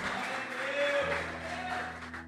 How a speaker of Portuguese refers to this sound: Aplauda bem forte ao Senhor, amado.